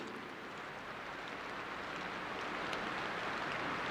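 Steady rain falling, a soft continuous hiss with faint scattered drops, heard from a short distance and fairly quiet throughout, with no voices.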